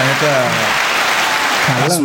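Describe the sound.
A steady burst of clapping for Inter, dense and loud throughout, with a man talking over it briefly at the start and again near the end.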